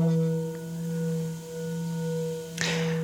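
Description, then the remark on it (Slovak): A singing bowl, used for sound healing, rings with a steady, humming tone and layered shimmering overtones that sustain evenly throughout, interrupted near the end by a brief scratchy touch. “To je tie včely pomaly.”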